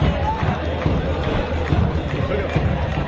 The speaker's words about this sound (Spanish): El estadio de mi equipo.